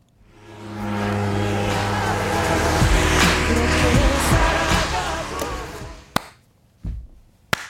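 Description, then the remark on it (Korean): A car with its window open passes on a cold day, loud, bass-heavy music playing, swelling over a few seconds and then fading away, followed by three sharp, isolated hits at the end. “자, 옆에 차가 지나가요. 옆에 차에 창문 열어놓고 센 척해요.”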